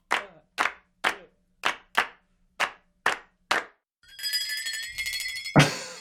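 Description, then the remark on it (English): Eight sharp, crisp hand claps, played live by band members for a music track, in a loose, uneven rhythm, followed by a shimmering, ringing metallic Flexatone tone that swells slightly before ending on a final loud hit. No one speaks. “Oh, here's more claps.”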